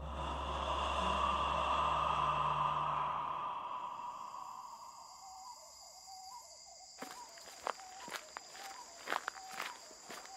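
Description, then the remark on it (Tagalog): A low rumbling drone fades out, then a quiet stillness gives way to a handful of distinct footsteps crunching at an uneven pace as people walk in the dark, over a thin steady high whine. “Kaya nakakapagtaka na parang may napapansin akong kaluluwa na sumusunod sa amin habang naglalakad kami sa dilim.”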